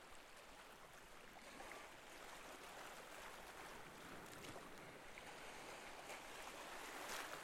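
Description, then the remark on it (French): Soft waves lap and wash steadily, a continuous gentle surf with faint splashes and no voices. “des gémissements des goélands, qui, quand ils s'apaisent, laissent réapparaître le doux ressac léger balancement des vagues.”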